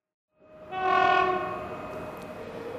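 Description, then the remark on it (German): A train horn sounds at a railway station, a sustained harmonic blast that swells quickly and then holds steady over the rumble of a train, with no one speaking. “Und als der Vater im Jänner 1940 den Koffer im Zug nach Österreich verstaut hatte, und die Mutter vom Zugfenster aus die winkenden Menschen am Bozner Bahnhof sah,”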